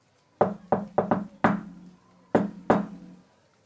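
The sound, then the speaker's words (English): A patterned knock on a wooden door: a quick syncopated run of five raps, a brief pause, then two final knocks. Solid and resonant, with no voices. “I do my patented cool guy knock on the door.”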